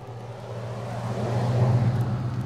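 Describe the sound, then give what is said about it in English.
A truck rumbles past on the road, its low engine drone swelling as it draws near and peaks, then holding steady. No voices are heard. “I think it's him because they just honked at me, and I, I think my boyfriend's in the truck.”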